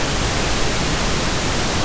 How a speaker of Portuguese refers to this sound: Oi, e oi, desliga o ventilador. Desliga essa eu... merda desse ventilador, pelo amor de Deus.